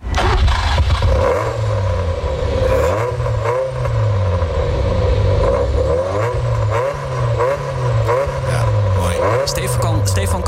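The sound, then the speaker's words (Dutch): A car's original Ferrari engine, fitted with new technology, revs loudly, its pitch climbing and dropping in a series of repeated throttle blips over a steady idle rumble. “Dus nog wel de originele Ferrari-motor natuurlijk. Oké. We hebben geluid, hè? Misschien kunnen we iets laten horen.”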